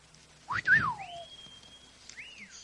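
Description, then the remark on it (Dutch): Someone whistles a short run of sliding notes: a quick rising-and-falling swoop, a long steady tone, then a brief arched note, clear over faint background noise. “Ja, dat zou ik ook voor fluiten als ik jou was.”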